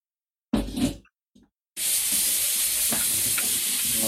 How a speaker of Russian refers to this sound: Я и так жарю э, лук и чеснок на свой страх и риск.